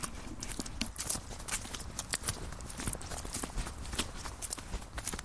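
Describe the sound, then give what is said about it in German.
Quick, steady footsteps crunch and tap as a person walks home briskly despite hip pain, a brisk stream of sharp impacts that keeps going the whole time over a low, rumbling outdoor background. “Naja, ich werde jetzt mal schnell trotz Schmerzen in der Hüfte nach Hause walken, damit sich meine Family keine Sorgen macht.”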